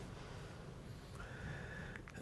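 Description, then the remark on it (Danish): A person's voice imitates a T-Rex roar: one drawn-out, strained, whinny-like cry that rises and holds over a low rumble, fairly quiet and heard alone. “Det var, T-Rex'en, jeg lavede,”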